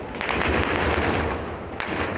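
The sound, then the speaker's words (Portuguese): Loud bursts of rapid gunfire crackle over a dense, noisy background, with sharp, distinct shots ringing out near the start and again toward the end, as Taliban members fire into the air to disperse a crowd of protesters in front of the Pakistani embassy in Kabul. “Integrantes do Talibã efetuaram vários disparos para o alto para dispersar a multidão.”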